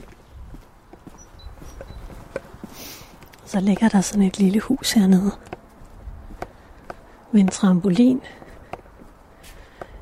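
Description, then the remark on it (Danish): Steady footsteps tap along a long corridor as a person walks down it, a regular walking rhythm throughout, while the person speaks over them in two short stretches. “Nu går jeg ned her kigger og ser, hvad der sker.”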